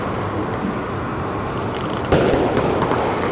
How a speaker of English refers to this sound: I've been photographing these fireworks, and I just took a break, and of course, now all the fireworks are starting. It always happens.